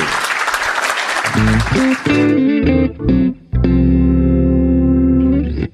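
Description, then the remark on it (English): A crowd claps loudly for about two seconds, a dense wash of applause in thanks to W. Kamau Bell, which then gives way to loud, sustained electronic music with buzzy, distorted chords. “Please join me in thanking W. Kamau Bell.”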